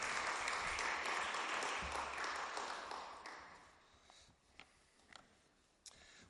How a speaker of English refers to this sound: I think you really deserve a round of applause for getting through all those names.